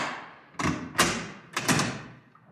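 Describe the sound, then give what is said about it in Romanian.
A door is unlocked and pulled open: a handful of sharp clunks and thuds in quick succession, fairly loud, each with a short ringing tail, and no voices. “Haide, deschide ușa aia odată.”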